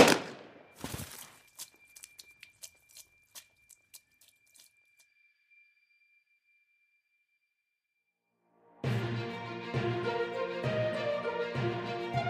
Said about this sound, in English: Rick cocked the hammer of the gun, stuck it in his mouth, and fired.